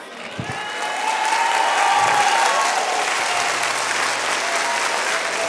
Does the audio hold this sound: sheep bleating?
no